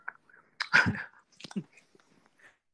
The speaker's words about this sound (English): I'm just sat munching cheese, so bear with me.